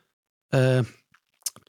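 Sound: burp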